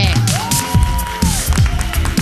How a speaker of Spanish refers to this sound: Oye, sí que se nota, ¿eh? Aplauden premium, ¿eh? aplauden premium,